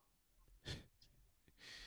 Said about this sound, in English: you breathing too fucking much. Slow it down.